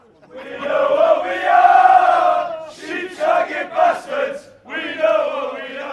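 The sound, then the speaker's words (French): A large crowd of Welsh football fans at the European Championship sings their songs together in loud, sustained chorus, voices swelling into long held notes, briefly breaking into shorter rhythmic bursts, then resuming the full-throated song. “Alors pouvoir être là et chanter nos chansons comme ça, c'est un sentiment irréel, mais vraiment incroyable.”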